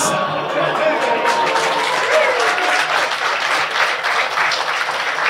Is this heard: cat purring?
no